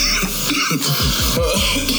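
Someone coughs in a rapid, sputtering series of harsh hacks after choking on water that went down the wrong pipe, then clears their throat. The coughing is fairly loud, with no talking over it.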